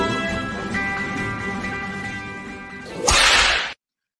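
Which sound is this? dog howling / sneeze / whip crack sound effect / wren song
whip crack sound effect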